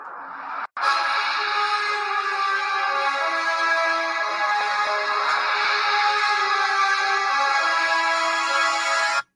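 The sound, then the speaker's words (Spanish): A movie-themed phone ringtone, the longest of the phone's ringtones taken directly from the film, plays loud, a sustained layered melody with rich tones that runs steadily for several seconds after a brief cut near the start, with no voices. “Y también trae diferentes eh, ringtones eh, de, directamente de, la película, de cierta manera que hacen referencia a lo que es la película, en el cual vamos a ver si les puedo reproducir uno.”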